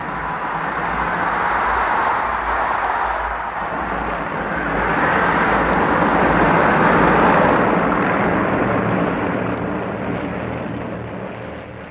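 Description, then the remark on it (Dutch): Engines of hundreds of heavy bombers drone steadily overhead above the Netherlands, a loud, sustained low rumble with a broad roar that swells slightly midway and holds without a break. No voices are heard. “350 vliegtuigen 500 ton motoren der zware bommenwerpers bleven daveren boven een juichend Nederland.”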